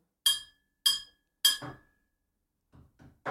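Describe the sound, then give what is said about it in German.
A glass is struck three times in a steady rhythm, each clink ringing bright and high before fading, followed by a few soft low knocks and rustles. “Wir läuten ein, wie bei den feinen Leuten.”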